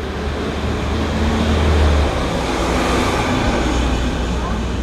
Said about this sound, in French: et puis oh, attends il a un camion qui passe.